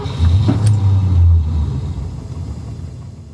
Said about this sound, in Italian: Alle 6.10 mi sono andato fuori dalla porta di casa, ho acceso la macchina e sono andato verso Milano.